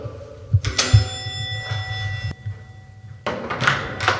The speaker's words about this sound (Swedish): Eh, vi ringer på dörren.